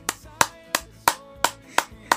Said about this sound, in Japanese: めっちゃ拍手してるよ今聞こえるかな